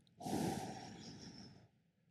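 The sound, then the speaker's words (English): A single slow, breathy exhale blown out through the mouth with slightly pursed lips during a breathing exercise, fairly loud at first, then softening over about a second and a half before fading out. No voices. “Step two, exhale slowly through your mouth. Now, as you blow the air out, purse your lips ever so slightly, but keep your jaw relaxed.”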